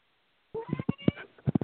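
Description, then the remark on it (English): After a moment of silence, a caller's small pet cat lets out a drawn-out meow followed by a quick run of short, chirpy mews in the background of a phone call to a radio call-in show, fairly soft and somewhat distant, with no one talking. “I don't know if you can hear my little cat meowing in the back.”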